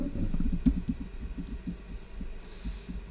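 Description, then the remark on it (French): Muffled keyboard typing taps along in a steady stream of quick keystrokes for a few seconds, faint, with no one talking. “Ah en même temps, euh, tu vois, genre, tu vas me dire si tu m'entends taper au clavier, quoi.”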